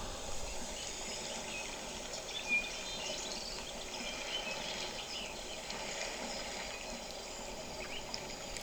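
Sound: birds chirping and singing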